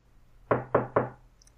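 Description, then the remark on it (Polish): Three quick, evenly spaced, sharp knocks on a door, made to open a knock-knock joke, with no one speaking. A faint low hum runs underneath. “Dlaczego ty zrobiłeś puk, puk, puk?”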